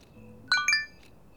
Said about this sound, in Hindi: देर रात एक नए अनोन नंबर से दिव्या के पास करण का मैसेज आता है